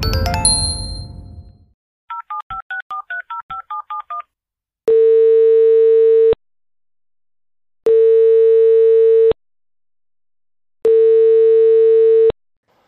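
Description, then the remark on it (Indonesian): After a brief rustle, a quick run of touch-tone dialing beeps gives way to three long, steady ringback tones evenly spaced in silence, with the call never picked up and no voices. “Tadi nelpon ya? Sorry nggak sempat keangkat.”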